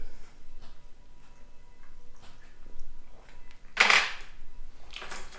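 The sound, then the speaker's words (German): Glasses clink together in a toast: one bright, sharp chime rings out partway through, followed by a softer second tap near the end, over a quiet background with no talking. “Ähm, ich würde sagen, dann stoßen wir auch mal an.”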